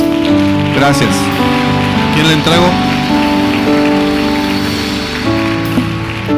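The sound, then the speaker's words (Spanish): Steady, dense applause from a crowd, given to God at the close of a ministry's message, fills the whole stretch, layered over sustained musical tones, while a voice briefly speaks on top of the clapping. “Bendiciones, denle un aplauso a Dios.”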